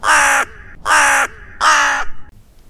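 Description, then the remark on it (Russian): A crow flying past caws three times in a steady rhythm, each harsh, raspy call loud, with short pauses between and faint background after the last call. “Женщина в красном пальто – загляделась на пролетающую мимо ворону.”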